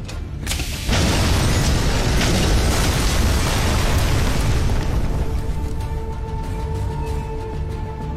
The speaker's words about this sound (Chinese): 万万没想到，他们离开公交车后不久，还是有人启动了炸弹，公交车又一次化为了灰烬。